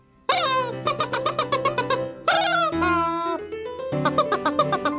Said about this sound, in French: Et eh ouais, le solo, c'est du poulet. Ce fameux poulet en plastique hein, qu'on continue à voir beaucoup sur l'internouille, mais rarement interprété avec autant de sensibilité